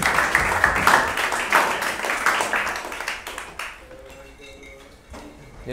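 A burst of applause, dense and fairly loud, carries on for a few seconds and then drops away, leaving a few faint ringing tones behind.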